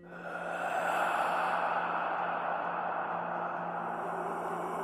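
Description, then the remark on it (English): A voice imitates an eerie creature moaning through a cavern, a long, breathy moan that holds steady for several seconds, fairly loud, with no talking around it. “you just hear this moaning sound pass through the cabin, the the cavern.”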